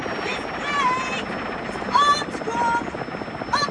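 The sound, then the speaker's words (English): Loud, steady helicopter rotor noise fills the scene, a continuous chopping roar with a high whine on top, while short shouted voices break through over it, calling people to grab the rope ladder and climb up into the helicopter. “In the helicopter! Grab the rope ladder!”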